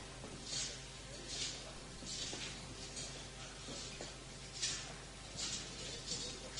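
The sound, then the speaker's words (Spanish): Soft, swishing rustles of the canopy fringes (bambalinas) of the Virgen del Traspaso processional float swaying as it moves through the interior of the Santa Iglesia Catedral, rising and fading in a loose, repeating rhythm about once a second over a low, steady background murmur. “Y ahora escuchan las bambalinas meciendo”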